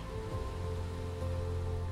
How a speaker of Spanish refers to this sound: El aroma es especial y puedes sentir en tu rostro las gotas de agua caer poco a poco sobre ti.